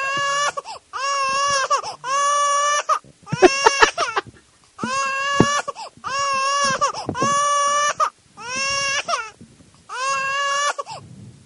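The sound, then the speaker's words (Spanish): Loud crying sound effect: a string of about nine drawn-out, high wailing sobs separated by short gaps, with no talking over them. “¿Por qué lloras así?”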